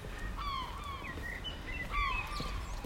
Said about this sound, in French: J'espère que vous entendez les mouettes parce que sincèrement, ça donne vraiment le côté très cool de la situation. Pas un autre bruit aux alentours, si ce n'est le bruit des mouettes et des oiseaux.